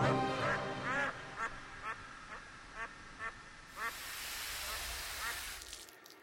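duck quacking

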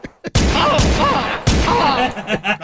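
video game gunfire

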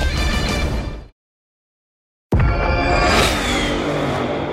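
powerful car engine revving

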